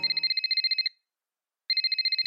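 A telephone rings with a fast, trilling electronic warble in two bursts, about a second each, separated by a short silence. The ringing is clear and fairly loud, with no talking.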